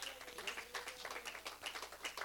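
A crowd of people applauding together for Jesus, a steady, dense patter of many overlapping hand claps that holds for a couple of seconds at a moderate level.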